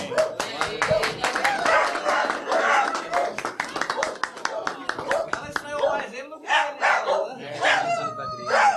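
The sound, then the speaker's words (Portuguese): A small dog, the committee's mascot, yips and barks, with a few high, rising cries toward the end, following a stretch of brisk clapping and overlapping voices as the dog is blessed. “Senhor abençoe, guarde esse cachorrinho, que é a sua família, em nome do Pai, do Filho e do Espírito Santo.”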